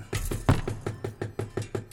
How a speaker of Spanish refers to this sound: Sin duda son los cajones con su cargamento de tierra. Se oyen martillazos. Están clavando el cajón.